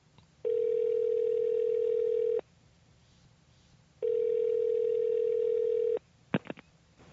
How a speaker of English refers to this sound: Should we get them on the phone? Yeah. All right, let's dial them up.